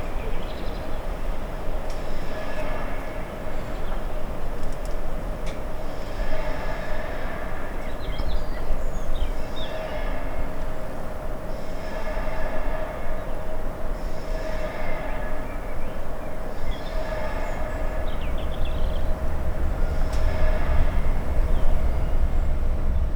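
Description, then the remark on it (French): A train, train 3375 bound for Genova Brignole, runs steadily on its rails: a constant low rumble with a faint hum, and soft rhythmic clatter that repeats every few seconds. No one speaks. “je prends des trains pour visiter un ami à Genova.”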